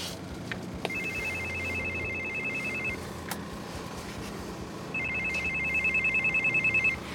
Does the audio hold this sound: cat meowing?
no